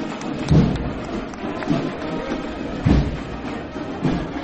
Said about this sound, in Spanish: Varios costaleros de la cuadrilla, delante del paso, rompen aplausos el pueblo de Jaén.